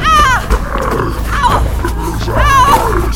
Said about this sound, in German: Ich rannte los, in die Richtung, aus der ich das Brüllen des Unheimlichen hörte.